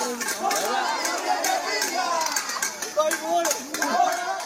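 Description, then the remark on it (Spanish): A street protest crowd in Cuba shouts for freedom amid blackouts, demanding the government restore electricity; many overlapping voices rise and fall together in a dense, raised roar, with sharper cries and brief bursts breaking through over the whole stretch. “Decenas de personas tomaron las calles con gritos de libertad y exigieron al gobierno que ponga la corriente eléctrica.”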